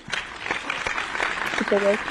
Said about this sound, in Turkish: Kocaman alkışlar şu an sana gönderdim. Kabul et.